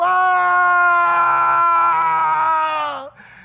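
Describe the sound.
A man imitates the loud, anguished scream of Joseph crying out before his brothers: one long, strained cry held for about three seconds, then sliding downward in pitch as it breaks off. No other talk.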